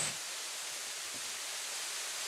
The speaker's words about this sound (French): Le bruit même euh, de l'eau sur la pierre, ça me fait une chair de poule.